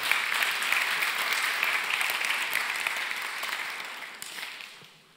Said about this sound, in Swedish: Tack så mycket lovsångsteamet. Kan vi ge dem en, en applåd? Varm applåd.